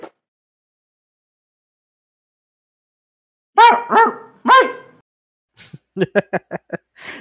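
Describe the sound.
After a long silence, a person loudly imitates a dog with three close, throaty barks, followed by a quick string of short, choppy yelps or laugh-like bursts.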